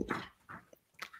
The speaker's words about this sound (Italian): stanotte mi è sembrato che parlasse nel sonno, nel senso che faceva, emetteva dei suoni che sembravano delle consonanti, addirittura una vocale. Non ho mai sentita emettere questi suoni, mai sentito un cane emettere questi suoni.